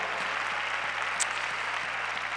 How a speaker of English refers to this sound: Clap your hands to the Lord and thank Him together.